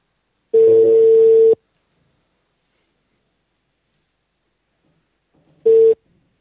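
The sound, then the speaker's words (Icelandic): A telephone ringback tone as a phone call is placed: one long steady electronic tone of about a second, a silent pause, then a second tone starting that cuts off short. No one speaks. “Hefur ekki bara ringið hann? Jöllum í það bara.”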